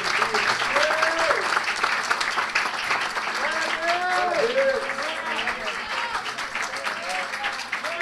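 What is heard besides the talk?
audience applause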